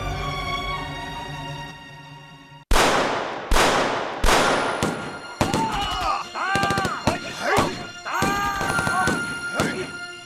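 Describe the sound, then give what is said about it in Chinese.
Gunfire at exactly midnight as an armed uprising begins: four loud, sharp gunshots ring out one after another following a low sustained tone, then further bursts of fire continue beneath raised voices and shouting. “夜里十二点整，枪声骤然响起。”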